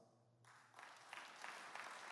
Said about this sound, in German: Wow, Applaus.